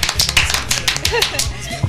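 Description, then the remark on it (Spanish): A dense burst of applause sound effect played on a radio program to welcome guests, many hands clapping rapidly and irregularly for about two seconds, loud and steady throughout with some background chatter mixed in. “Fuertes palmas, aplausos, chicas.”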